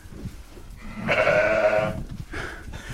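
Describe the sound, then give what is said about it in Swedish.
A sheep lets out a loud, wavering bleat lasting about a second, followed by a shorter, fainter bleat, with soft rustling and shuffling of an indoor barn in the background. “Ja men, ja men vi står i, i stallet här nu med, med fåren.”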